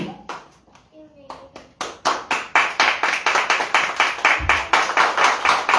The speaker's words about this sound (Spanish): A su nombre será gloria. A su nombre, palmas a Jesucristo, maestro.